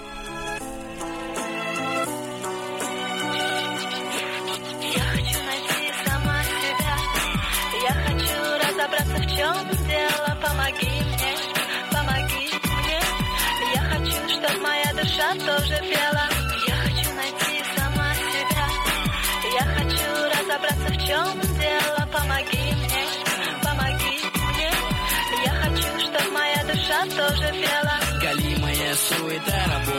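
A song begins with a short, quieter intro, then a full arrangement kicks in with a steady, punchy bass-drum beat and layered melodic instruments, playing loudly and continuously at an even pace.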